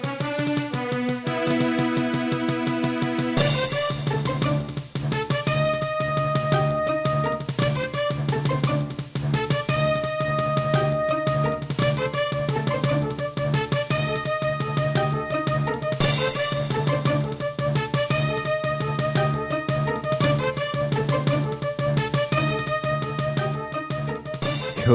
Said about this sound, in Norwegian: Vi lar dere gruble litt over det mens vi hører på kampmusikken fra Quest for Glory, eh, Sierra-spillet.